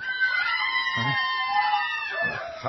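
Several women scream and wail over the death of the queen in a sustained, shrill chorus that carries on without a break, high cries overlapping and fairly loud, with a couple of lower bursts underneath.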